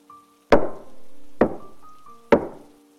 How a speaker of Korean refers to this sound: 단단한 나무들의 마찰음이 세 번 들리자 소년의 곁에 있던 코소형 경찰은 소년을 데리고 광장으로 나왔다.